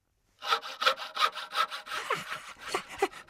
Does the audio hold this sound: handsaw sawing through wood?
yes